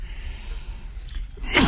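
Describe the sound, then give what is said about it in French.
After a quiet stretch of low background noise, one sharp, breathy cough bursts out near the end, fairly loud, from a tickle in the throat rather than a sneeze. “En tout cas, il me gratte bien la gorge.”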